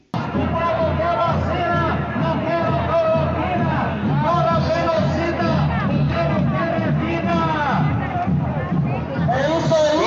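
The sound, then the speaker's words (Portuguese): A large crowd at a public rally and march at Praça 7 in Belo Horizonte fills the scene with continuous loud hubbub, overlapping voices and scattered shouts and whoops, a steady dense roar of people. “Vamos então a Belo Horizonte para ouvir o que foi aí o movimento, o ato público lá na Praça 7, né?”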